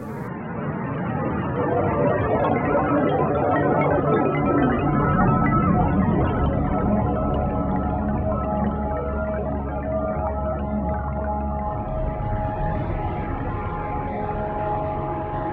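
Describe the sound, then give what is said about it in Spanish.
Dense electronic music from 2005, previously unreleased, by a composer born in Norway in 1970, with sustained tonal lines over a thick, rumbling drone-like texture, holding a steady, fairly loud level throughout with no voices. “Estamos escuchando …, tarea del 2005, inédita anteriormente de …, nacido en Noruega en 1970, cuyas composiciones suelen ser tonales, melódicas y rítmicas”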